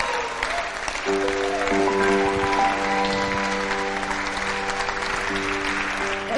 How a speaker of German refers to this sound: Hey, lass uns dieser Person echt einen Applaus geben, die die Entscheidung getroffen hat.